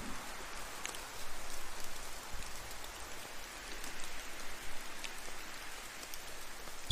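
nature, distant rain falling

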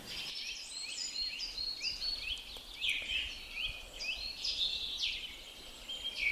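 bird, birds singing

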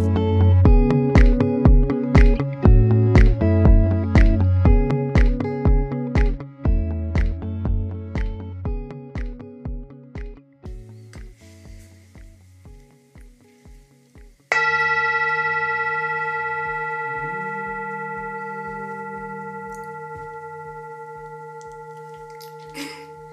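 singing bowl ringing

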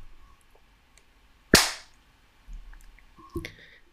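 human body sound, hand clapping

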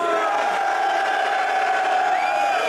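crowd, crowd cheering and shouting

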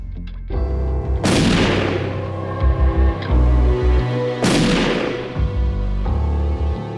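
sound effect, two gunshots

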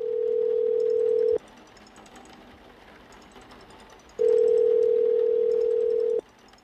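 signal or alarm, telephone ringback tone

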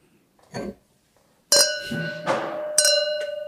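household object, wine glasses clinking

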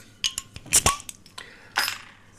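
household object, beer bottle being opened

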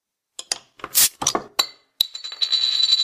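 household object, glasses clinking

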